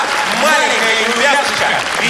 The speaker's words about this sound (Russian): Я знаю, но мало аплодисментов. Хочется еще, друзья, еще.